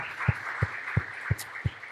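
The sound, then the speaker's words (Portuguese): An audience claps hands together in a steady rhythm to the Lord, thanking God for the leadership and preachers, with five evenly spaced low beats over a continuous wash of clapping. No one speaks. “Podemos bater palmas ao Senhor pela vida deles, agradecendo a Deus.”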